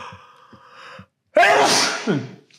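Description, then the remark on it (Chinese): A single loud, explosive sneeze bursts out after a soft breathy lead-in and a brief pause, its hissing spray ending in a short voiced tail. No talking. “我就看，我一直想要打喷嚏，”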